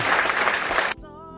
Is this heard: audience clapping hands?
yes